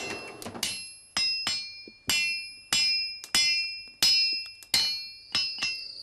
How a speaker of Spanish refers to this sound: Tanto las herramientas como los repuestos son forjados en el propio taller.